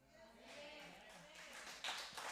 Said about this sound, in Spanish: Dele más fuerte porque tengo que aprovechar esos aplausos a nuestro amado Señor Jesucristo.